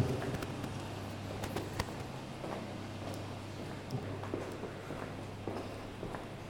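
Footsteps walk toward a staircase at a steady pace, each step a soft tap over a constant low hum. No one speaks.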